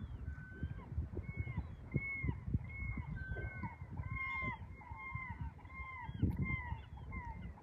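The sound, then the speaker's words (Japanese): A chorus of seagulls calling on a cool, fresh morning around sunrise, many overlapping cries rising and falling, starting and stopping together, with a steady low rumble of wind or surf underneath. “みんなカモメがねめっちゃあの性に泣き始めたり止まったりなんかみんななんかこう、うん、なんだろうなあれ儀式というかあのみんなで挨拶というかなんかしてるんじゃないかなと思いますね。”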